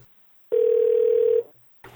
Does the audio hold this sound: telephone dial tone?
yes